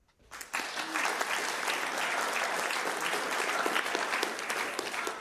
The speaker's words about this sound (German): Halt! Hier soll doch noch gar nicht geklatscht werden. Dieser Applaus kommt doch erst am Ende.